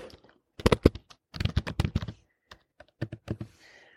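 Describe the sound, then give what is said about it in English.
Rapid keystrokes clatter on a computer keyboard in short bursts with brief pauses between them, moderately loud, with no voices. “Sorry, I had to type something really quick. I know you heard it too.”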